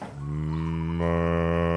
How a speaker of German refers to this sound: ja der, der Müller melkt wieder Kühe. Hörst du das?